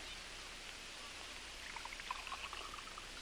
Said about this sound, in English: Now then, pour yourself a good stiff drink. It'll blaze you up. You need it.